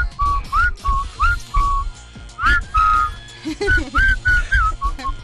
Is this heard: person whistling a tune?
yes